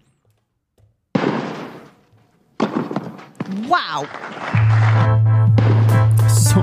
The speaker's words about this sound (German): Und das waren jetzt keine Schüsse, sondern ein symbolisiertes Tennisturnier. Und das ist mein neuer Jingle fürs Aktienturnier.